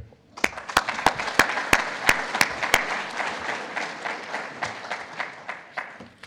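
An audience breaks into applause to welcome a speaker before his presentation, with a few sharp, evenly spaced claps standing out loudly at first over a dense wash of clapping that stays steady and then begins to thin toward the end.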